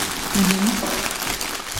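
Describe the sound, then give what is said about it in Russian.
Soft number-5 plastic snack packaging, such as Snickers and Mars wrappers, crinkles and rustles steadily for about two seconds, a dense, crackly hiss with a brief low murmur near the start. “То есть мягкая пятерка, она шуршит”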